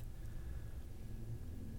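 A steady, low droning rumble fills a moving truck's cabin: engine hum and road noise blend into one constant, even roar, with no voices and no changes in pace.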